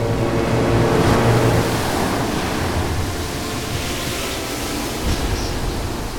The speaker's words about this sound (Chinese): 没注意到海浪开始变大，翻涌了起来，也刮起了大风。暴风雨已经悄悄地来袭了。